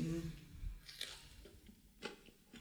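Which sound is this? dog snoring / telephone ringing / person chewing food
person chewing food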